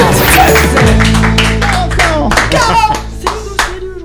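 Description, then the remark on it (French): A short radio jingle, loud and punchy, with rhythmic hand claps over a sustained deep bass tone and bright, gliding synth notes, lasting about four seconds with no talking. “Ah oui, tiens, c'est pas le bon jingle alors, c'est celui-là.”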